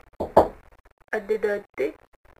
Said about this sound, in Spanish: Se oyó un golpe en la puerta